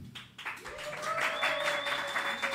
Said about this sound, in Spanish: Ahora vive en Tulum y ahora está aquí frente a mí en playa, ansiosa de que la presente y de que todos ustedes le den un fortísimo aplauso, por favor.